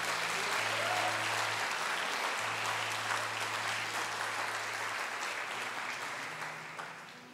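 A crowd claps steadily and loudly for several seconds, dense applause with a low sustained tone humming underneath, before the clapping begins to fade at the end.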